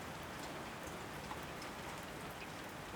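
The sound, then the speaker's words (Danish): Steady rain falls continuously, a dense even hiss with scattered drops pattering on a surface, moderately loud, with no voices. “Da Sally cykler hjem, efter det, der føles som verdens allerlængste dag, begynder det oven købet at regne.”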